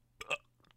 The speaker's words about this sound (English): Also, I'm sorry for the burps